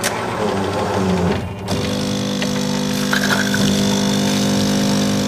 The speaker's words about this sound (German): In der Küche lässt die mit dem Internet verbundene und per App gesteuerte Kaffeemaschine bereits den morgendlichen Cappuccino in die Tasse laufen.